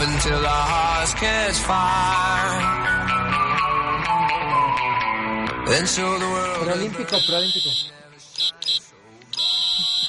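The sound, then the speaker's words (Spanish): Dense music and voices fill the first seven seconds, then a loud, shrill cricket chirping takes over in sustained bursts separated by short pauses. “que puedes hacer un remix con tu grillo?”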